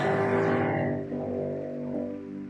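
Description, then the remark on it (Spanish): A sustained wash of audience applause for God at a Christian convention fills the room, steady and fairly loud, with sustained musical tones from a keyboard or organ ringing underneath; no one speaks. “Dele un fuerte aplauso a Él.”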